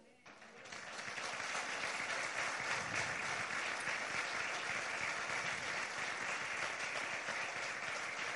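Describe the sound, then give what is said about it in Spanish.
A church audience bursts into applause for the Lord that swells within the first second, then holds as a dense, steady wash of many hands clapping for several seconds without letting up. “Bueno, entonces le vamos a dar un aplauso a él.”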